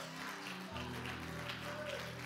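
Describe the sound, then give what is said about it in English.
A crowd claps steadily, a dense wash of hands that keeps an even level throughout, with a low sustained organ-like tone humming underneath. No one speaks. “No, no, don't clap. I don't like pity clap.”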